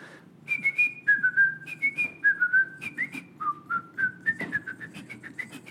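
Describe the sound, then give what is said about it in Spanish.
A person whistles a classical melody alone, in clear, sustained notes that step up and down in a steady phrase, moderately loud over a faint low background hum. “te estaba silbando la quinta de Beethoven como niño”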